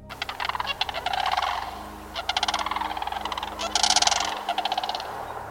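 A large bird, almost entirely grey with a red forehead, gives loud, rattling trumpet-like calls in several rapid bursts, with a steady low rumble in the background and no talking.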